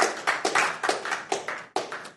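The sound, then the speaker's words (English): An audience claps for Jesus in a steady, even rhythm, about four sharp claps per second, with a brief break before the clapping picks up again. No one speaks. “Y'all can clap for Jesus.”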